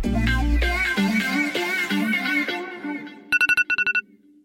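After a fading bit of music, a smartphone alarm rings out to wake someone: a quick run of about seven bright, electronic beeps in a steady, insistent rhythm, clear.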